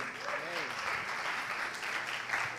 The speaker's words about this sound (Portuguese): Isso aí, até anúncio a gente aplaude aqui, somos o povo alegre.